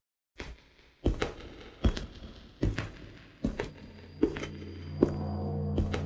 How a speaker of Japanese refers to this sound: しばらくの間は彼の足音が聞こえていたのですが、どこか曲がり角にでも差し掛かったのか、突然何も聞こえなくなりました